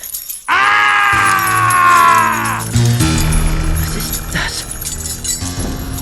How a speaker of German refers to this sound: den drei Detektiven stand eine brüllende Gestalt mit langen Hörnern, glühend roten Schlitzaugen und Reihen von spitzen Zähnen, die hell blitzten. Ein zottiges Fell bedeckte das Wesen.